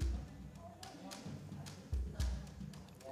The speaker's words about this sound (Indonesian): Bapak Hakim yang mulia segera mengetuk palu wasiatnya.